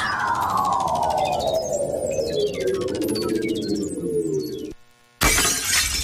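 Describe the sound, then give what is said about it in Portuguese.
Glass shatters in a long, loud crash full of bright tinkling shards, then cuts to a moment of silence before another sharp burst of breaking noise. “O seu vidro quebrou?”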